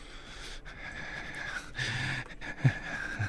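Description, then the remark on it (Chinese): A male voice actor imitates creepy, heavy breathing, the kind that would make a woman in an enclosed space want to leave at once: drawn-out raspy breaths with a low husky rumble, then a couple of short, sharp snorting gasps. The breathing is fairly quiet, and no one speaks. “想要马上逃离那个人身边，让女生觉得很不舒服的喘息声。”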